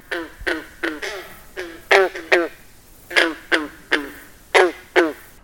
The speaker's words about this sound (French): D'après toi, est-ce que c'était un cerf de Virginie ou une grenouille verte? C'était la grenouille verte!